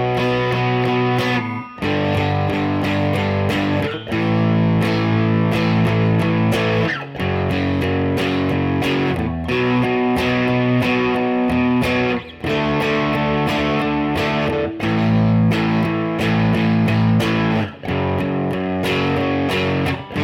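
Distorted electric guitar power chords strummed loudly in a steady driving rhythm, with brief breaks between chord changes, buzzing and gritty throughout, no voices.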